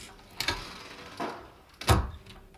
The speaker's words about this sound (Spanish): Cierras la puerta con cuidado detrás de ti.